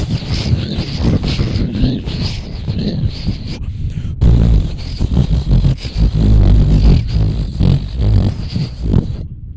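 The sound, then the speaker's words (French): Steady, loud gusts of real wind roar for about four seconds, then after a brief break a second stretch of rushing, blowy noise follows, someone imitating the wind by blowing into the microphone. “C'était le vrai vent et le faux vent.”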